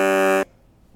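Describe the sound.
A single short, loud car horn beep from a car behind a vehicle waiting to turn across oncoming traffic, a steady blaring tone lasting about half a second before cutting off into quiet. No voices are heard.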